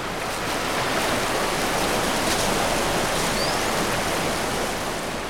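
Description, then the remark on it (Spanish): A loud, steady rush of churning water from a large river with foaming rapids at the bottom of a deep ravine, like a fast river tumbling over rapids, continuous with no pauses or voices. “el grupo llegó a una honda cañada por cuyo fondo corría un caudaloso río lleno de espumosos rápidos.”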